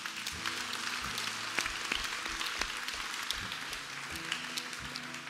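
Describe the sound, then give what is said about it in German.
Steady, dense audience applause at a church service fills all five seconds with a bright crackling texture and scattered sharp claps, while low sustained musical tones play softly underneath. “Geht doch mal einen fetten Applaus.”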